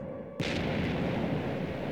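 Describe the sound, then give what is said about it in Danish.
A sudden, loud bomb blast bursts in after a brief quiet lead-in, followed by a sustained, heavy roar of rumbling debris and destruction that continues without letting up, as Soviet bombers bomb the island of Bornholm. No voices. “De kan høre ødelæggelserne omkring dem.”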